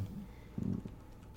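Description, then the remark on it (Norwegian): Soft, muffled tapping on a PC keyboard, a short flurry of keystrokes heard at a low level from another room through a door left ajar, with a brief pause between bursts. “Så hører jeg at det er noen som begynner å taste på tastaturet.”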